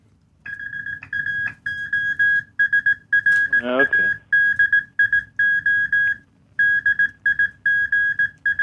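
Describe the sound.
A steady high-pitched tone keys on and off in a pattern of short and long beeps, like Morse code, sounding continuously for several seconds while a voice briefly speaks over it.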